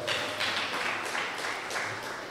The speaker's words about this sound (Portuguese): Olha aí, gente, ó, só os primogênitos, fica com a mãozinha levantada. Vamos aplaudir essa turma aí, gente, por favor, bate palma para eles